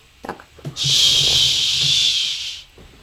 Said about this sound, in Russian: Это шипит наша батарея. Для меня было удивительно, что... Спасибо за звуковой аккомпанемент.